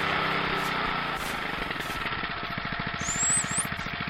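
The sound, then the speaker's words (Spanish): A motorcycle engine chugs with a rough, rapid putter that grows slightly louder, and a brief high-pitched squeal rises over it near the end. “La gente dice que esta moto se le anda quedando.”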